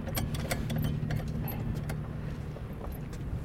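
Metallic clinks and ratcheting clicks from a boat's anchor windlass brake being tightened to lock the anchor chain, irregular, over a steady low engine drone.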